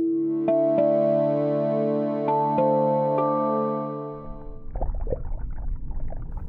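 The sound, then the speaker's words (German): A steady, humming harmonic drone with occasional clicks gives way to a murky underwater soundscape of low rumbling and bubbly gurgling that continues, fairly loud, to the end. “Dieses Gluckern, das unsere Ohren unter Wasser heimsucht, ist eine wahre Geräuschsuppe.”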